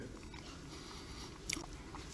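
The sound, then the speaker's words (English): Soft, wet chewing sounds as Bill de Blasio talks with a mouthful of half-chewed Shake Shack fries while pitching free fries for getting vaccinated. A couple of sharper smacking clicks come near the end, with no talking. “Anyway, here is Bill de Blasio making his pitch with a mouthful of half chewed food.”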